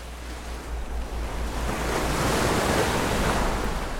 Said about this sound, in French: Je suis dans le filet à l'avant du bateau, littéralement en suspension au-dessus des vagues, si près d'elle qu'elle m'éclabousse.